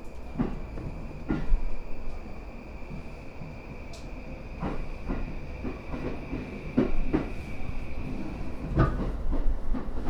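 A commuter train on the Yamanote line in Japan rumbles steadily along the rails, with repeated sharp clacks of wheels over track joints and a faint high whine running throughout, heard from inside the carriage.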